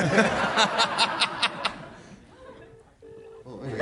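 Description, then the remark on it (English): After a stretch of laughter and chatter, two steady bursts of an outgoing phone call's ringback tone sound in quick succession, clear over a quiet background. “it's ringing.”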